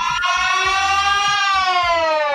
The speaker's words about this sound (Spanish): Salen sirenas de todos lados, mi amigo. Se liquidó, se liquidó la sirena.